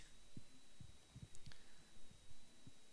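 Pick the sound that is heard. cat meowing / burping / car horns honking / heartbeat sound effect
heartbeat sound effect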